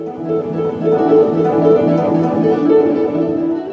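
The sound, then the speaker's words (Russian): A guitar solo performed at a festival competition in the instrumental music category plays a steady run of sustained melodic notes at a consistent, fairly loud level, with no voices present. “И саксофон Сергея Шахова – и гитара”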